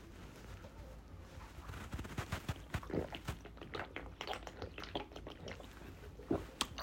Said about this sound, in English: Kirkland's water is different. Let me take a motherfucking sip.